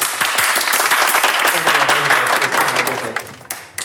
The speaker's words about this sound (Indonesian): Ini kalau ada efek tepuk tangan boleh ya?